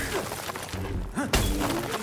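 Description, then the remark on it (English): A single sharp shattering crash as hardened amber, which sets almost on contact like concrete, breaks apart midway, followed by a rumbling, crumbling tail over a busy background. “It's like concrete. It hardens almost on contact. It shatters on contact, too.”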